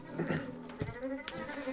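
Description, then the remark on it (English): A dense swarm of bees hums steadily, the layered buzzing drone holding close and fairly loud, with a couple of brief louder swells as insects pass near. “industriously hopping along on his one leg and herding his bees in a close humming swarm.”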